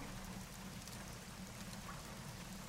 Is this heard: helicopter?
no